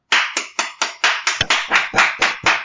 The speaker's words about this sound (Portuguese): Palmas para ela.